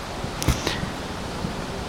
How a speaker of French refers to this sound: Nous sommes à Miyajima, pas très loin de Hiroshima. À ma gauche, il y a une cascade.